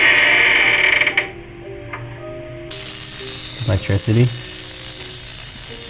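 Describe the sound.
An electricity sound effect played from a soundboard phone app: a loud electrical buzz kicks in abruptly partway through and holds steady with a harsh, crackling hiss, with a voice speaking briefly over it.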